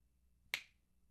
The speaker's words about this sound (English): Can you try snapping your fingers again? I can't fix. I don't know what I. Can you snap your fingers again? Yeah.